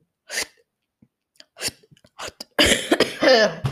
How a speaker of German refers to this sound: oh, ich verrecke erstmal Hilfe. Da ich Husten habe, ist es eher unklug, den Ton zu machen, da man sich da auch ein bisschen verschluckt.